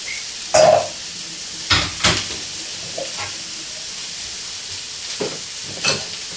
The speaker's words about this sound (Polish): Teraz czekamy, aż się kurczak usmaży, bo wszystko został kurczak i usmażenie i do dodania do sałatki majonez.